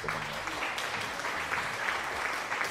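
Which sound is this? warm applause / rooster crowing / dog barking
warm applause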